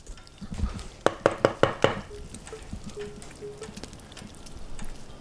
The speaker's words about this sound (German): Ich klopfe an.